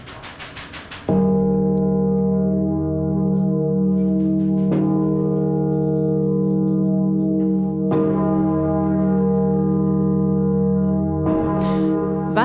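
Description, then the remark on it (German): The large, heavy Great Paul bell of St. Paul's Cathedral, rung by hand, tolls four times at slow, even intervals, each stroke ringing into a long booming hum, after a brief mechanical rattling at the start. “Zu ihren Ehren wird dann auch der Great Paul läuten.”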